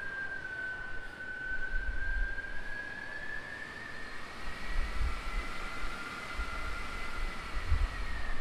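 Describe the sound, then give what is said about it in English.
An airport plane train, running in reduced service mode, pulls in with a steady electric whine that slowly rises in pitch over a broad rumbling hiss, continuous, with no voices. “Yo, the train. The train.”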